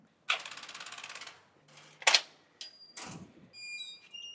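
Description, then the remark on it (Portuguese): A metal gate opens, recorded on a city street while walking the dog Tyson: a rapid rattling, ratchet-like clatter for about a second, then a sharp clank, a scraping drag and a thin metallic squeal. “Se liga aí o portão abrindo.”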